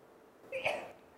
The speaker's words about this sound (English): Now, bless you.